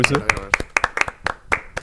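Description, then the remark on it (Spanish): A short round of applause marking a first anniversary on 26 December: about a dozen crisp, sharp hand claps in a quick, slightly uneven rhythm, with voices audible briefly at the start. “Y un aplauso. Eh, sí, un aplauso.”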